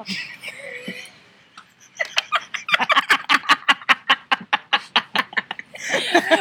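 Two hens, angry at each other, cackle together in a rapid, rhythmic burst of sharp staccato clucks, fairly loud, rising after a quieter stretch of softer background sounds.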